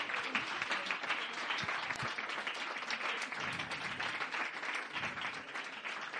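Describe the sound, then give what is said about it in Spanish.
Steady applause from a crowd at a Slam León event, for the event's organizer, many hands clapping in a dense, continuous crackle that holds at an even level for several seconds without fading. “Que no es que, o sea, que el aplauso debería ser más grande porque, jolí, lo tenéis aquí organizando.”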